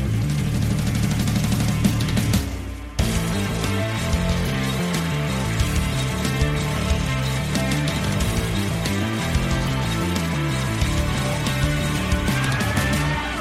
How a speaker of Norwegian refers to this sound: Ja, der suser bilene forbi i eh, flott tempo denne gangen også.